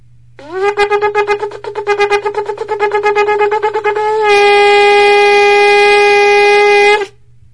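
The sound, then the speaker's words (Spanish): A loud, brassy horn sounds an alarm: a quick rising note breaks into a rapid run of short staccato blasts, then settles into one long, steady sustained tone before cutting off. “El sonido de la alarma, suena la alarma.”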